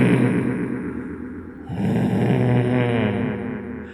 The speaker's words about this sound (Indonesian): Masih dalam posisi memegang daun pintu dan belum sempat menutup pintu, terdengar jelas suara orang sedang menggeram.